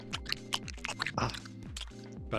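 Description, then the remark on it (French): Close-up mouth noises imitating someone eating into their microphone, wet smacking and crunchy clicks repeating rapidly and irregularly for a couple of seconds, loud and right at the microphone, with a low hum underneath. “ou le gars qui mange”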